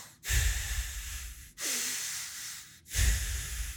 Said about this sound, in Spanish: Ya ese es engranaje 2. Equal in, equal out por la nariz.